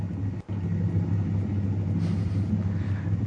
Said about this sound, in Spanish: Se escucha el helicóptero.